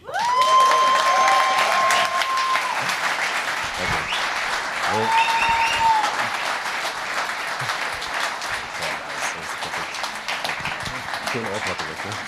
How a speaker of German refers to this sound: Es ist mir eine Freude, dich anzukündigen. Macht auch mal bitte Lärm